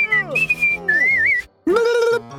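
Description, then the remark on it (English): A pearl thief whistles a taunting, sliding tune at Black Bear, who is stuck in tree branches, in a few quick phrases, fairly loud, with a short pause before a final rising, held whistle. “The pearl thief whistled at Black Bear, who was stuck in the branches.”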